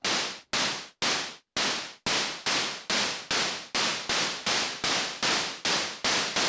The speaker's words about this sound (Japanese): で、スネアの音に関しては、えー、っと、ちょっと、ノイズをメインにちょっと作ってみようかなというふうに思います。えー、っと、オシレーターを切って、ノイズだけ楽しむとこんな感じですね。で、えー、これに、えちょっとリリース。